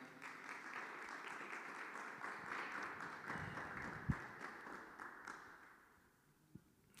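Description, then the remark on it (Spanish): A crowd claps for Jesus steadily for several seconds in a dense, even wash of applause, with a couple of louder thumps, before the clapping fades out near the end. “Da un aplauso a Jesús ahí en tu lugar.”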